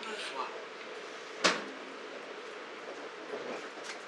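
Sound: train running on rails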